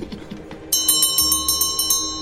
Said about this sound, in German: Ich, ich äh, klingel mit diesen Glöckchen, die die Mistranten immer haben. Bim, bim, bim, bim.